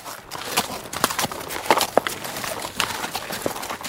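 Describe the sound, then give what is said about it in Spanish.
Horses' hooves, of the horses of Ramesses II's army, clip-clop steadily over hard ground, a busy, uneven patter of sharp knocks as several animals seem to move together at a walk, moderately loud. “acompañados por los caballos del ejército de Ramsés II”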